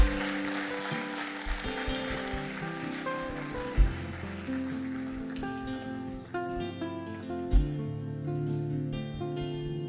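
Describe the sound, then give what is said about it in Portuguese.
An audience applauds the Lord in a dense, steady wash of clapping over sustained keyboard chords; the clapping thins after a few seconds while the music carries on. “Aplaude o Senhor.”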